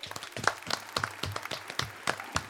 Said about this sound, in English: Why don't we go ahead and clap it out?